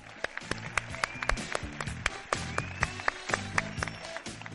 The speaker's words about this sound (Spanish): Gracias, yo os pediría un aplauso para vosotros porque ha sido increíble que estéis aquí.